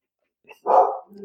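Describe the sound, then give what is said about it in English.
A single sharp, loud dog bark, preceded by a brief small yip and followed by a lower trailing whine or growl, from a group of several dogs. No talking. “The best way I can say it is, and I apologize right now, the dogs are driving me nuts, is can you talk for one minute so I can go stop them?”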